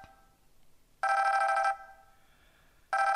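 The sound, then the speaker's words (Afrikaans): A telephone rings in two loud bursts, a bright, buzzy electronic trill lasting under a second each, separated by a pause of quiet background. No one speaks. “Hilton, dis hy. Geantwoord.”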